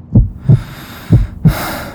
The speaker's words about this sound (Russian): Единственный звук, который ты слышишь, это стук твоего сердца, наполняющий каждую клетку твоего тела. Он рождает жизнь и потребность к движению.